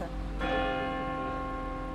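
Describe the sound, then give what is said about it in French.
Church bells ring out loudly, a fresh strike landing early and then a rich, sustained metallic hum lingering and slowly fading over a low background rumble. “les cloches bah, Peut-être on peut attendre que ça ah. s'arrête.”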